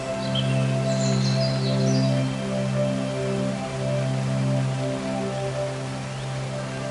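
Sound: waterfall rushing water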